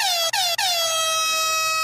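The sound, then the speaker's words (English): A loud, blaring air horn fires three quick blasts in a row, with the last one held long and steady, piercing, with no voices. “AKA, we still have that fucking air horn.”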